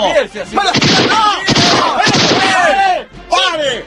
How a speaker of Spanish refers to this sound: Sí, los voy a cagar a tiros.